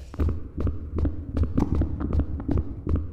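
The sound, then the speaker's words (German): A fast, steady heartbeat thuds loudly, roughly two beats per second, each pulse a sharp thump over a low continuous hum, with no voices. “Viel von der Forschung, die mit Sound oder Audiosynthese zu tun hat, hat typischerweise mit dem Herzschlag angefangen.”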